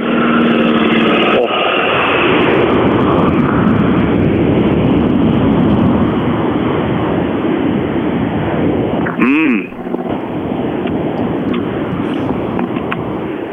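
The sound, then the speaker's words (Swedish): A loud, steady roar of a Saab rally car engine passing, with heavy rumbling noise throughout, rising into a brief sharp whine of revs before settling back into the rough drone. “ljudet av en Saab 3-4 som bara...”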